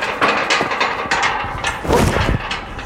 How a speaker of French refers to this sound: On pousse le portail pour éviter qu'il fasse trop de bruit.